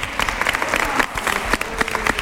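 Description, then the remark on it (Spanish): Studio audience applause for a young actress guest, a steady dense wash of many hands clapping at an even loudness, with a few sharper individual claps standing out and no speech over it. “es de Churriana y se merece un aplauso, yo creo, ¿no?”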